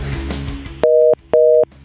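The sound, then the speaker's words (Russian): A telephone busy signal: two steady, evenly spaced beeps of a clear electronic tone, each about a third of a second, following a moment of rough line noise. “Был звонок. Да, вот звони, звони, телефон звонит, если маю, ту-ту-ту-ту. Опять кладу трубку.”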